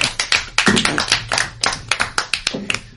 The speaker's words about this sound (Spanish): ¿Os ha gustado? Pues un aplauso no pequeñito, aunque sea.